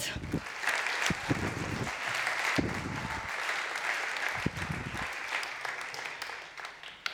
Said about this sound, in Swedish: Kan vi ge till barnen en annan applåd?